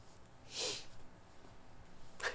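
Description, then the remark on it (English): A quiet nasal sniffle, a short airy intake through the nose, followed a moment later by a second, briefer sniff. No talking, just the soft hiss of breath. “that sniffle.”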